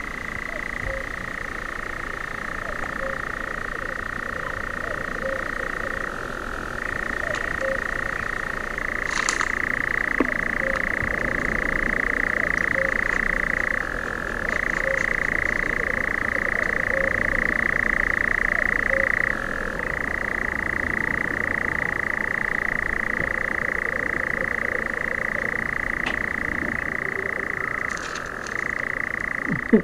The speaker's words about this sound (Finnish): Ehkä oikein voinut käsittää, että minkä takia tässä nyt seistää ihan lumoutuneena jotain hyrinää kuuntelemassa. Mutta kehräjähän on jotenkin kevätyössä, niin sehän on ihmeellinen tai kesäyössä.